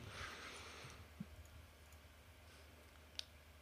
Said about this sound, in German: ich würfel kurz auf Lügen.